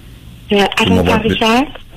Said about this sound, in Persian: ببخش عزیزم صدا خیلی خرابه من واقعا مشکل دارم شما رو بشنوم نمیدونم چرا اول خوب بودی الان این گونه شد